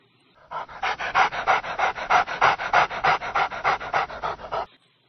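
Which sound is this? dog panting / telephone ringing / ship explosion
dog panting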